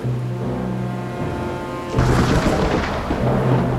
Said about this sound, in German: Ah, wo kommt denn dieser Sturm auf einmal her?